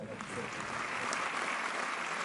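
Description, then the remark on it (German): Steady applause from a large theatre audience at the end of a premiere performance as the actors bow, a dense, continuous patter of many hands clapping at once with no pauses. “Als sie zurückkommt, klatschen die Besucher.”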